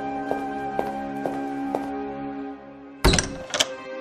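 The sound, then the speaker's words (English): Two loud, heavy knocks on a wooden door ring out, following a steady low hum with soft, evenly spaced ticking. No one speaks. “The girl sat spinning again when there was a knock on the door.”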